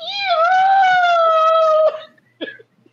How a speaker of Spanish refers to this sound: cabrón, la gata de casa, sí.